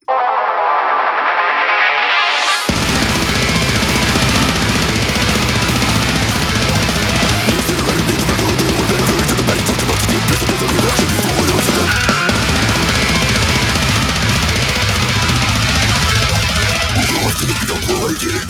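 A loud, dense extreme metal song with intense, rapid-fire vocals kicks in after a brief rising intro, pounding drums and heavy guitars filling the rest without a break.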